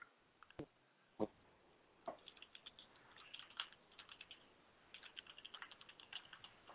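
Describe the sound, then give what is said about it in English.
Rapid clicking of keys on a computer keyboard as someone types into a chat room, irregular bursts of typing with a few heavier strokes, fairly quiet, no voices. “I'm actually typing it into the chat room right now.”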